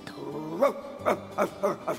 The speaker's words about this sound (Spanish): Pero a diferencia del primero, entró con miedo y les ladró con furia.